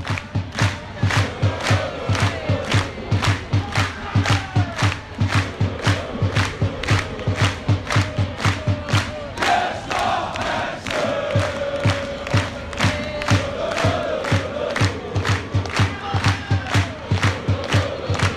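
A large crowd of football supporters chants in unison at a stadium, honouring a player named Jesper Hansen, their voices loud and sustained over steady, rhythmic clapping that keeps a fast beat throughout.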